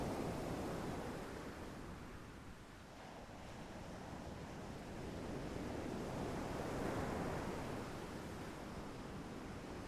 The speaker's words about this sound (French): que vous observez toutes ces choses, que vous entendez ce bruit rassurant de la mer, des vagues.